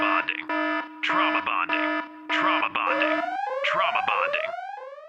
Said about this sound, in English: Sound that old alarm.